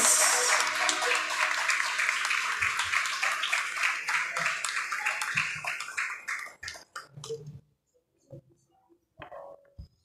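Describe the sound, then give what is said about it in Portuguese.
An audience claps and applauds to praise God, loudly and steadily for several seconds, then the clapping thins out and fades into scattered claps and near silence by the end. “Dê um aplauso ao Senhor, exalte o nome dEle, aleluia.”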